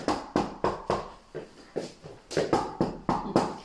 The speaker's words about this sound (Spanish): Es claro y evidente que está llamando a la puerta.